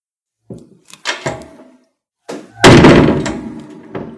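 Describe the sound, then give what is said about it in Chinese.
A pet gate is shut with a few light knocks and clatters, then a loud metallic slam that rattles on for over a second, ending with one final thud. No voices. “啊，不，这个栅栏不知道能够关他多久。”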